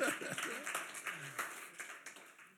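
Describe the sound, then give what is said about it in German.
An audience breaks into applause for the technical crew, a dense, steady patter of many hands clapping that gradually thins out, with a few voices briefly audible at the start. “Applaus für die Technik, die funktioniert wunderbar.”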